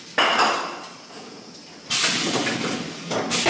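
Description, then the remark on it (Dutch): Sediment sprays out of a champagne bottle during disgorgement, forced out by the built-up pressure together with some of the wine, in two loud, hissing bursts, a sharp pop-like onset and then a rushing spray that fades, with a faint clink of glass. “Je hoort bij het eruit spuiten.”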